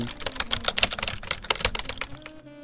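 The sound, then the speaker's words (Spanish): Rapid clicking of keys on a mechanical keyboard, a dense, irregular run of sharp clacks, fairly loud and continuous with no voices. “Es el mío, es un teclado mecánico.”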